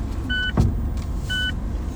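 Inside a car in Osaka Prefecture, Japan, with a steady low engine rumble, two short electronic chimes sound about a second apart, and a soft thump in between, like a door or seat movement.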